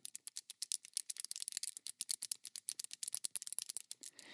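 Rapid, irregular clicking and clattering of small hard pieces knocking together as handmade carp-themed jewelry bracelets are shaken, bright, continuing steadily for several seconds without any voices.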